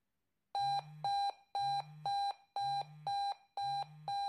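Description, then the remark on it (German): A fire brigade pager alarm beeps loudly in repeating pairs of sharp electronic tones, about one pair per second, with no voices present. “Der Pieper geht an und dann geht der Adrenalinpegel”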